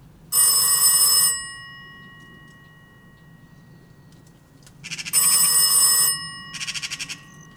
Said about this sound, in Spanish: Sonó el teléfono.